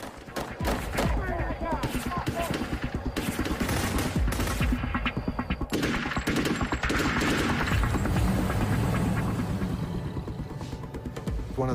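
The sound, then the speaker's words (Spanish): A long, loud volley of gunshots fired at a house by masked gunmen in a home-invasion robbery: more than 50 rounds, dozens of sharp cracks in rapid, uneven bursts that overlap almost without pause for about twelve seconds. “Dispararon más de 50 rondas hacia la casa.”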